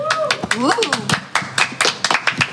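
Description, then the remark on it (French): A short burst of sparse, irregular hand clapping from a crowd on the place du cinéma, sharp and fairly loud claps that sound like only a few people, with a voice speaking and a rising vocal sound over them. “Est-ce qu'on peut l'applaudir s'il vous plaît”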